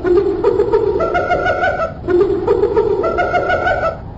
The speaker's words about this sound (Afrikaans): Hulle skree hard, hulle Hyena laggies soos hulle altyd maak as hulle iets gevang het om te eet.